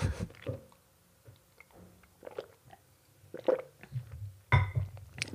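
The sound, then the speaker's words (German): Someone takes a sip of water: soft wet mouth sounds, a few small gulps and swallows, with a brief clink or tap near the end. No one speaks. “Zuerst nehme ich jetzt noch einen Schluck Wasser.”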